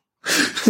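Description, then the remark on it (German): After a brief silence, a single sharp, breathy sneeze bursts out, ending in a short voiced tail. “Sehr geil. Gesundheit.”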